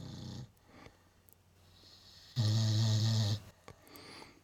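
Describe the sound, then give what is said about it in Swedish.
A dog, Iris, snores while lying at home: a short rumbling snore at the start, then after a pause a longer, louder, throaty snore, with soft breathing between. “Hon ligger och snarkar”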